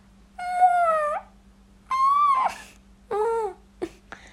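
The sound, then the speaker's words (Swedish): A nine-year-old child's voice imitates a fox call: three drawn-out, whiny, howling yelps with pauses between, then two quick short yips, clear over a faint steady hum. “jag är nio år och jag tror en räv låter så här.”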